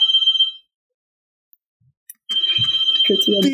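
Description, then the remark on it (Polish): A phone's electronic ringing alert, a steady high-pitched tone that sounds briefly, falls silent, then rings again while people talk over it. “Tinder dzwoni”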